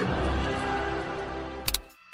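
A horse whinnies in a long, drawn-out neigh that fills most of the moment, followed by two quick sharp knocks like hooves before it fades. No one speaks.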